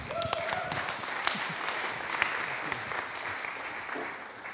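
Sustained applause from an audience welcoming a speaker, a dense wash of many hands clapping at steady volume for several seconds, with a few sharper claps standing out and faint voices underneath.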